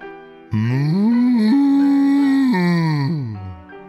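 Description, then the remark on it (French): A person's voice imitates a long, drawn-out cow moo, rising into a sustained low tone before sliding back down, loud with no other sounds around it. “dit la vache.”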